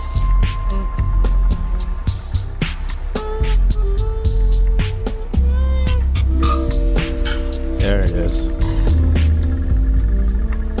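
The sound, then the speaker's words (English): A deep, distorted 808 bass drum booms throughout a loud music track, its pitch sliding downward in sweeps beneath melodic layers, while a voice briefly speaks over it. “It does like a sweep with- into a bit distortion.”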